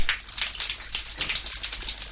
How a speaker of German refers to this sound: Das war die Dusche in Derton bei Mildura in Australien. Dort hatte ich auf einer Rosinenfarm gearbeitet. Weintrauben gepflückt und später auch Eimer aufgeladen und zum Trocknen ausgekippt. Eine einfache Brause in einem vermoderten Bretterverschlag.